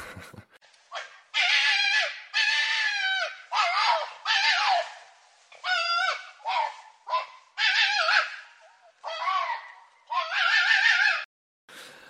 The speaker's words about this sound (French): J'étais très étonné la première fois que j'ai entendu le cri du renard. Tu saurais nous l'imiter Alors, l'imiter, non, mais ça ressemble en gros à une femme qui crie. À une femme qui crie Oui. Un peu de manière hystérique